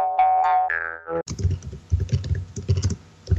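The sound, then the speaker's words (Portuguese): A short wobbling, springy tone gives way to a man's quick, steady clacking of keys on a computer keyboard, fairly loud, with no voices. “Tem um cara digitando aí.”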